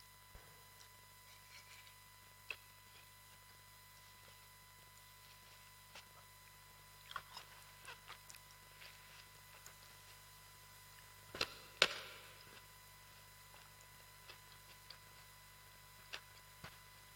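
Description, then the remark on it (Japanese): Quiet eating sounds: scattered small wet clicks and smacks, then one louder crunchy, juicy bite near the middle as someone chews into watermelon, with no talking. “どうですかこえました なんか途中で私のピチャッとかって音がしてもう一口いかせてもらいます”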